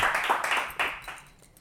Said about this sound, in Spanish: ¿Le puede dar un aplauso fuerte al Señor? Pero un aplauso fuerte, como si usted entendiera algo. Vamos, dale ese aplauso fuerte una vez más.